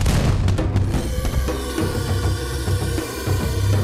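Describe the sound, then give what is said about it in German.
Dense, rumbling bursts of rocket-propelled harpoons firing through the night pile up continuously, with sharp cracks early on and deep low-end thuds rolling beneath as they explode in the distance on reaching their target. No one speaks. “Die raketengetriebenen Harpunen durchschnitten die Nacht, und als sie ihr Ziel erreichten, explodierten in der Ferne wunderschöne kleine Feuerblumen.”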